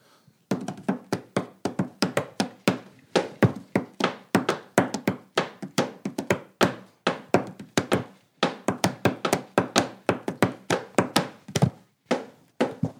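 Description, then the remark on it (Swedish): Hands drum a steady, rhythmic pattern on a wooden tabletop with a microphone held against it, a quick run of dull thunks and taps with short gaps between phrases. The beat is loud, with no voices. “Jag håller som- micken här mot bordsskivan så kan du eh, banka ut lite.”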